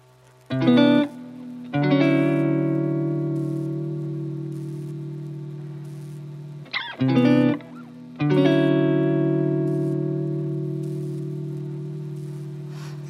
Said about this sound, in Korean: 네, 오늘의 첫 곡입니다.